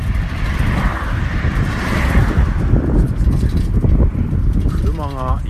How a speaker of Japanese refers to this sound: 車がすごいスピードで走ってきました